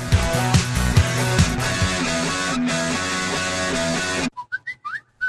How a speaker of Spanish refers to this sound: No, no es tu teléfono, es el inicio del espacio publicitario.